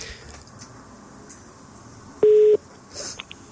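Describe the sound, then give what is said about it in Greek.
A phone line sounds a single short, loud electronic tone, like a ring starting, over a quiet hiss, followed by a brief rustle and a couple of faint clicks, as a radio show phones a listener in Kalamata for a birthday greeting. “Έκτακτο, σκάει αμέσω, χτυπάει κιόλα.”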